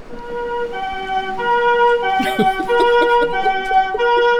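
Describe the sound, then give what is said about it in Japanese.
A softer-toned ambulance siren in a new comfort mode alternates between two sustained, mellow pitches in a smooth, steady cycle, fairly loud with no voices over it. “はい、じゃあ続いて、新しいコンフォートモードのサイレン音です。”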